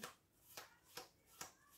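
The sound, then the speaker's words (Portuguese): Tarot cards being leafed through one at a time while looking for the Libra card: five soft, crisp papery flicks at a steady, unhurried pace, quiet, with no talking. “este baralho eu acho que o, o baralho Norbert Lost tem aqui uma carta da balança mais, mais interessante”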